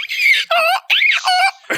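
A donkey braying sound effect: a loud, rapid hee-haw of four or five alternating harsh, high-pitched wheezing tones in quick succession, with no talking.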